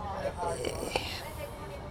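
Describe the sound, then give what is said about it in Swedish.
Faint chatter of a group of older women talking among themselves, a soft murmur of overlapping voices in the background with no clear words standing out. “Det kommer något tantsällskap här hörde du dem väldigt mycket?”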